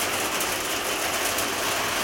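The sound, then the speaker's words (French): Hail falls in a dense, steady clatter, a continuous hiss of countless tiny impacts that stays at an even loudness throughout, with no voices. “Alors là, c'est de la grêle.”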